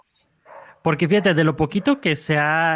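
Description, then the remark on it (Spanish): A dog gives a short bark, and then a person starts talking steadily, with the bark left in the background. “ahí disculpen los ladridos de mi perro”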